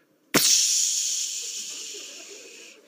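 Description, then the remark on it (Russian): A voice imitates air escaping from car tires as they go flat: one sudden, steady "pssh" hiss that starts sharply and holds for over two seconds before trailing off, fairly loud, with no talking. “И я еду, я слышу этот звук. пш Я медленно подъезжаю к шиномонтажу, выключаю машину, выхожу, слышу этот звук.”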